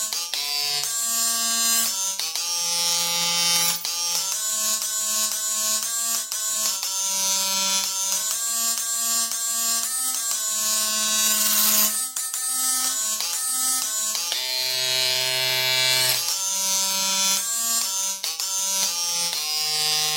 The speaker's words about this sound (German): du hast jetzt gerade nicht einen Rasierapparat hier irgendwie durchs Keyboard gejagt, oder?